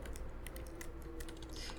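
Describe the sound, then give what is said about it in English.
Quiet, steady typing on a computer keyboard: a quick series of soft, irregular key clicks with small pauses between bursts, over a low background hum and no voices. “You're really adept at that keyboard, you know.”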